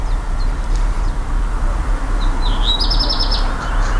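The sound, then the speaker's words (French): Birds chirp and trill outdoors, with a quick run of bright, high notes standing out over a steady low rumble of background noise, like traffic or wind. “On écoute les oiseaux.”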